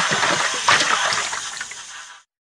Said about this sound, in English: The water jet, please, Miss Rabbit, orders the dentist. He uses the water to clean Mr. Dinosaur's teeth. Slush, slush, slush.